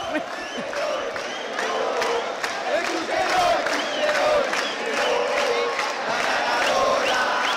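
A large live rock concert crowd chants a well-known fan chant in unison, 'la aplanadora del rock and roll', a steady rhythmic roar of many voices with regular pulsing accents, loud and continuous throughout without a break.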